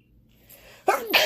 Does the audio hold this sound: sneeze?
yes